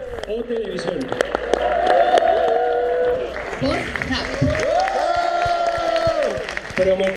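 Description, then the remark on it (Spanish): A crowd claps steadily throughout, a dense patter of hands mixed with loud shouts and cheering voices, energetic for several seconds. “Escucharon en WhatsApp el escandalazo y los aplausos, ¿no?”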